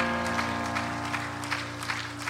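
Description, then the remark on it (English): An audience claps their hands, a dense, uneven patter of claps at moderate loudness, set over a steady low drone of held musical notes. No one speaks. “Everybody clap your hands to the Lord and say amen.”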